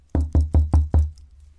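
Five firm knocks of a leopard's paw on the stone wall of a sheep kraal, in an even, steady rhythm, loud, with a dull thud to each strike and no voices.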